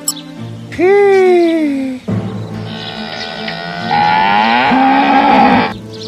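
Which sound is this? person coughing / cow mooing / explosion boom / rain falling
cow mooing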